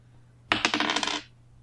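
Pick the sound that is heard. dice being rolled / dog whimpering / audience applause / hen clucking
dice being rolled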